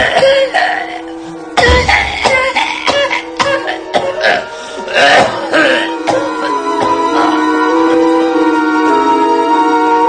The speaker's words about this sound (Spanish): Finalmente, reculó hacia la puerta como una limaña amedrentada y salió de la habitación encorvado, acuciado por un ataque de tos bronca